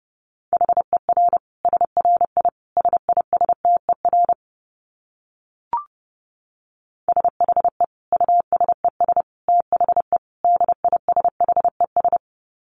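Fast Morse code at 30 words per minute in a steady, mid-pitched tone, rapid short and long beeps keyed in two bursts, separated by a pause with a single brief click. No voices.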